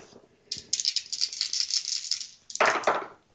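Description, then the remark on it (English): Eight six-sided dice (8d6) rattle in a cupped hand or cup for about two seconds, a dense clicking shake, then spill out in a louder, brief clatter as they land and settle. The roll works out how much damage is taken. No one speaks. “If you would roll 8d6 to figure out how much damage they take.”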